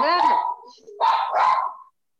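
Dogs bark: one drawn-out bark, a short pause, then two quick barks in a row, fairly loud, with no other sounds around them. They belong to a household that keeps a great many dogs.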